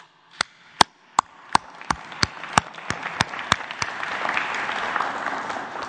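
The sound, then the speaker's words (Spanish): Audience applause for gas station attendants starts with a dozen sharp, separate claps at a steady pace, then swells into a continuous, fairly loud patter of many hands clapping together. No one speaks. “Este, eh, felicitación a los gasolineros eh, por su honestidad. Eh, un aplauso.”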